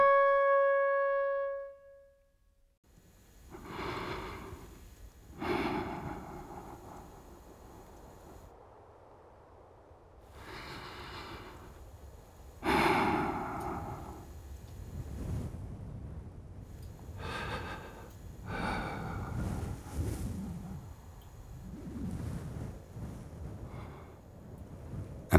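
Heavy breathing: loud, rasping inhales and exhales repeating every few seconds in an uneven rhythm, following a brief tonal chime at the start.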